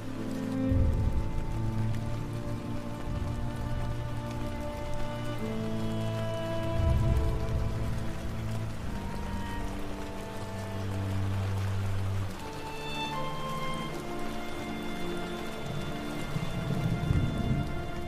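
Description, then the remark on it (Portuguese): Steady rain falls continuously at a constant, moderate loudness, with occasional deep rumbles swelling underneath like thunder. No voices are present. “A chuva caía de modo compassado na cidade de Fumorashi.”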